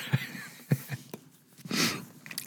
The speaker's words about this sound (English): oh, I'm sorry, I'm sniffing because I'm my my taste buds are so on fire.